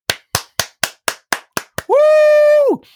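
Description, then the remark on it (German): Eight sharp, evenly spaced claps ring out in a quick steady rhythm as a guest is welcomed, followed by a loud sustained tone that swoops up, holds, then drops away. “Ja, wir begrüßen ganz herzlich, mit viel Taram, mit viel Applaus,”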